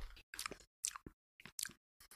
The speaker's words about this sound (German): Mögen auch, glaube ich, unsere Hörerinnen gerne, wenn wir so ein bisschen schmatzen